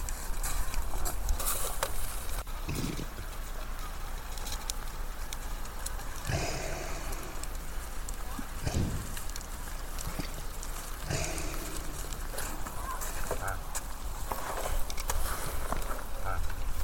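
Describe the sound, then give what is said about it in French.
Repeated crunching scrapes of reindeer hooves pawing at snow to find food, coming in irregular bursts over a steady rough outdoor background. “Oh, regardez, ils grattent la neige pour essayer de trouver de la nourriture.”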